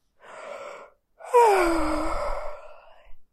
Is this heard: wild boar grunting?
no